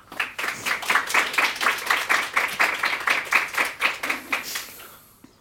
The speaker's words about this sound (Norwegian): Gi din applaus.